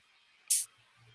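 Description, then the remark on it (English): A single open hi-hat hit from a drum machine, a bright, hissy metallic burst that rings briefly before cutting off, standing alone against near silence, as the length of the open hi-hat is adjusted on a controller. “Uh, the length of the open hi hat.”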